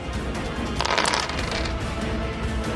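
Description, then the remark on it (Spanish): Two yellow dice rattle and tumble across a hard tabletop, a bright clatter that swells briefly near the start and then settles into a steady light rolling. No one speaks. “Tírame dos dados. Ah, dos dados amarillos.”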